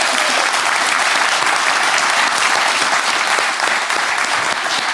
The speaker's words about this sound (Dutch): Jij hebt hem gemaakt? Ja. Nou, dat is een kunstwerk. Ja, dat is een applausje waard natuurlijk.